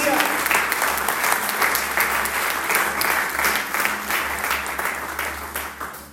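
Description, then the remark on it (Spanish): An audience breaks into loud, sustained applause for God as the provider, dense clapping filling the whole stretch with a steady crackle and a low hum underneath, tapering off slightly toward the end. “Alguien, dígame por favor, y alguien aplauda al proveedor por excelencia.”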